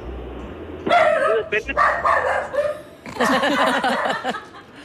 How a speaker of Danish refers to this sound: Der er hund i huset.